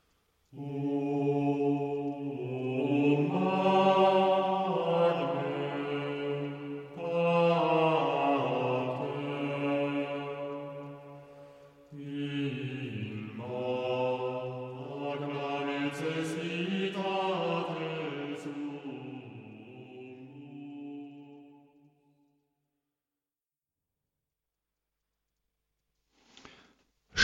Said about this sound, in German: Wir hören etwas Musik.